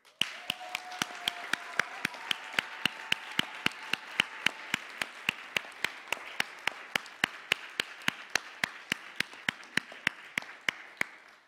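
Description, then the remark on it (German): An audience applauds for about eleven seconds, a dense wash of clapping with a steady, regular beat running through it, as if many hands clap together in rhythm. No one speaks over it. “Es geht mir einen einmal einen kräftigen Applaus.”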